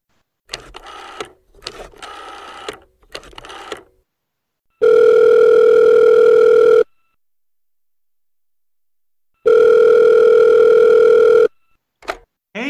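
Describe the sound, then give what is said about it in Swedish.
A phone line rings out while calling someone for an interview: two long, steady electronic tones of about two seconds each, separated by a pause of silence, preceded by a few short, choppy bursts of sound. “Vi har ju alltid med en intervju i varje podd och det är väl självklart att vi har ringt upp vår stora favorit”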